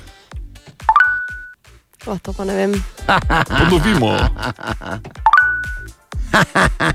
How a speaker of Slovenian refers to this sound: To je seveda Tinder in DNG, seveda nadalječ prepoznal.